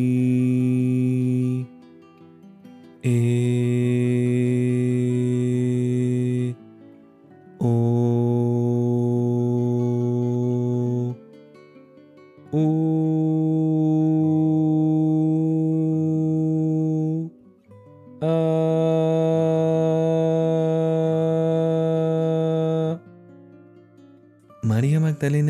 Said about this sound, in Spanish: La vocal A nos despierta los chakras pulmonares y nos confiere el poder de recordar las reencarnaciones pasadas. Una hora diaria de vocalización nos abre estos poderes ocultos. Se vocalizarán así.